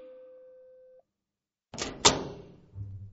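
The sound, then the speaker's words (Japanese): A steady electronic tone sounds briefly and stops, then after a pause a door is opened by a blonde girl with a rattling unlatch and a sharp click, leaving a low hum behind. “扉を開けてくれたのは、まるでお人形さんのような金髪の少女だった。”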